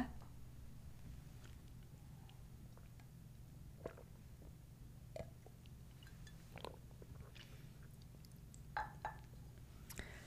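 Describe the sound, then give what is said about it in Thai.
Quiet mouth sounds of someone sipping water: a few soft slurps, wet clicks and a swallow over a low steady hum, with no talking. “เราขออนุญาตจิบน้ำนิดนึงนะคะ”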